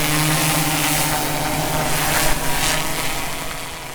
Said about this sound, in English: we were flying drones to collect the rest of the data